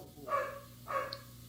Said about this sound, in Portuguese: Tem um cachorro latindo comigo.